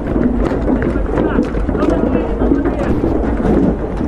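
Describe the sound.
Riot police run back toward their special transport vehicles on Surganova Street with heavy, rapid footfalls and a continuous clatter of rattling shields, loud, with scattered voices shouting among the din.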